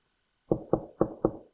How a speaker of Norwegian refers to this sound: Han måtte ha kakka på døra til dem så fort som mulig, for jeg hadde noe.